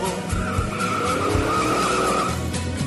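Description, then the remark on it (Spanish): A car accelerates hard with a loud, steady roar and a screeching tire-like whine, continuous for a few seconds with no voices. A woman is driving it, dodging other cars. “Mientras ella acelerando.”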